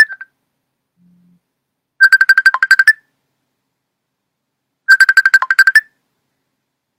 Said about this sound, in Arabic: عاد صونا في التليفون يلا حنا نشوف